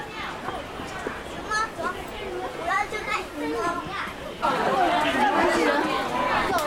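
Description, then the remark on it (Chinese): A dense crowd at a zoo's giant panda enclosure babbles steadily, with many overlapping voices including excited children chattering and calling out. The hubbub grows louder and busier for the final couple of seconds. “还有人山人海，都挤不进去。”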